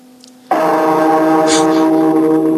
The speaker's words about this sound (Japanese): 最後のこの収録にあたりまして除夜除夜の鐘をお届けしております